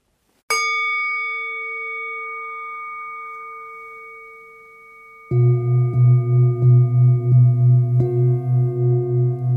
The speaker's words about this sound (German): Und dann, endlich, höre ich den feinen Ton, der die Meditation beendet.